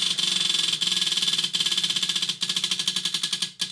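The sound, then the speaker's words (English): A prize wheel spins with a rapid, steady stream of bright ticks, the clicking spacing out slightly toward the end as it starts to slow. No one speaks. “we might have time for two more spins”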